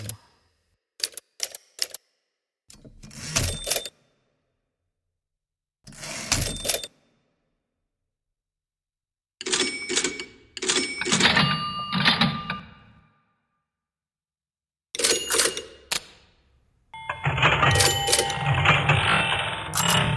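Typewriter keys clack loud, first in a few sharp isolated taps, then in dense bursts broken by pauses, with bright ringing bell dings mixed in; no one speaks.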